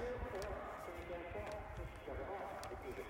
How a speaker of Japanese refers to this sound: 今ね目の前にはまフェンスがありましてで新潟文土基地の敷地が見えているとでなんかさっきから放送がやってるんですよねこれどっちから聞こえてきてる